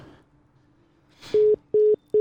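Three loud, steady electronic beeps repeat at a regular pace, each lasting under a quarter second, the familiar tone pattern of a phone call to a traffic reporter failing to connect, preceded by a brief rustle and low background murmur.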